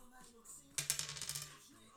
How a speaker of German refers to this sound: Oh, Würfel. Würfel.